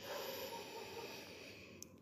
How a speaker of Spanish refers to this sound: cuando te tocas en la frente vas a decir, con respiración profunda, bien profunda,